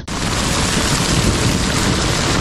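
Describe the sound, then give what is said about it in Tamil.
Heavy rain pours down outside in a steady, dense hiss that fills the whole clip, loud with a low rumble underneath and no voices. “வெளியில மழையும் நல்லா பேஞ்சுக்கிட்டு இருந்துச்சு”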